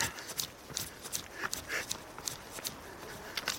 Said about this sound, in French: Petit bruit de bâton qui claque, c'est pas bon signe.